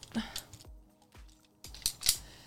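The legs of a Switch Pod tripod phone grip snap open with a quick series of sharp plastic clicks and clacks, about six in all, irregularly spaced with brief pauses, the last few loudest, with no talking.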